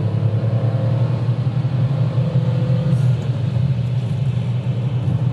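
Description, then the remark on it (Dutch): A car engine revving high as the car accelerates to 5000 rpm, a loud continuous droning roar with a deep rumble underneath and a slight upward shift in pitch, with no voices. “Dus even kijken of dat nou lekker optrekt. Nou, doet het. 5000 toeren.”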